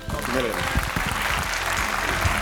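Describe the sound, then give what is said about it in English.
A crowd bursts into sustained applause, dense clapping at a steady loud level, with some murmured voices mixed underneath. “okay, applause.”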